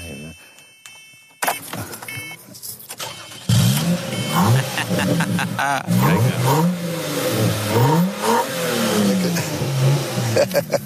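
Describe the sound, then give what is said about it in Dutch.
A car engine cranks and catches, then revs repeatedly with rising and falling pitch, loud. A brief whirring precedes it, and a voice speaks briefly. “kun je hem starten nu eigenlijk?”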